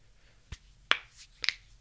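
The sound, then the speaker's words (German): Knuckles and neck joints cracking during a short stretch: three sharp, dry pops about half a second apart, fairly quiet, with no talking around them. “Oh, vielleicht hört man das kleine Knacken sogar.”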